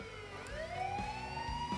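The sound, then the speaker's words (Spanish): An emergency siren wails, drawing ever closer, its pitch sweeping steadily upward in one long rising tone, fairly loud, with a low rumble of traffic beneath and no voices. “Ahí quedo, en el medio de la calle fría, cargada de sangre, escuchando cada vez más cerca la sirena.”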